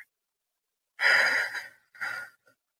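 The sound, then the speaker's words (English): Two breaths are heard during a slow breathing relaxation exercise: a long, airy exhale like a sigh, followed after a short pause by a briefer breath, with no talking and quiet around them. “Breathing out any tension or stress to the count of four.”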